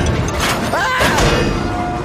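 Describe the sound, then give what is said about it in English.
A train engine crashes into the back of tar tanker cars with a loud crash: a dense booming rumble of metal, briefly overlaid with screeching, squealing tones, sustained for about two seconds. “crashed into the back of the same tar tankers the troublesome trucks had pushed him into before.”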